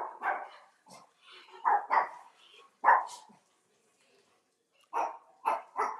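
Several dogs bark loudly, sharp barks coming in irregular clusters with a short quiet gap before a final burst of rapid barking.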